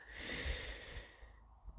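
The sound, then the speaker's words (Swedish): A single long breath drawn in through the nose, a soft airy hiss that swells then fades out after about a second, with no talking. “Jag tror att om vi andas lite grann.”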